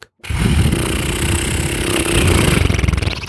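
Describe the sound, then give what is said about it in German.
A voice blows a long, loud, sputtering raspberry, imitating an airbag slowly deflating like a whoopee cushion. The buzzy flutter holds steady for about three seconds, with no talking. “Also ein bisschen so wie so ein Airbag, der so langsam wieder an Luft verliert.”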